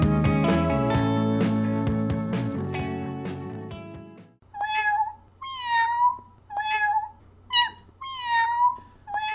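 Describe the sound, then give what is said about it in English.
A cat meows five times in quick succession, fairly loud, each call a rising-then-falling cry, coming right after a few seconds of music fades out. “Gumby Cat Productions. Podcasts for podcast people. Meow.”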